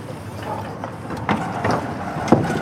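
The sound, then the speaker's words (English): Outdoor harbour ambience by the sea on the Normandy coast, France, beside a moored boat: a steady wash of wind and low rumble, with a few soft knocks and clanks rising briefly above the constant background. “Now, you've brought me to the seaside, to the Normandy coast.”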